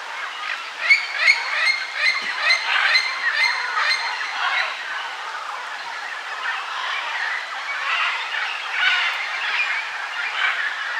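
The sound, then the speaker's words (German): Harsh, raucous squawks from a wild scarlet macaw (Ara macao), repeated in overlapping bursts throughout, loud, with a dense chorus of calls and no speech. “Also unser Vogel der Woche ist der in Freiheit lebende hellrote Ara oder Ara Macau oder Ara Kanga und eben nicht der sterbende Kanarienvogel im Bergbauschacht.”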